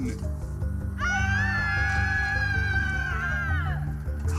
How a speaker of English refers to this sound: Those were probably happy screams.